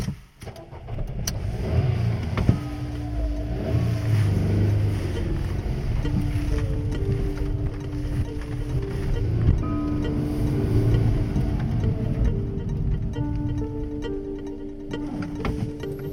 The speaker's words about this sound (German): Ich äh, ja, starte jetzt den Wagen und versuche ihm zu folgen.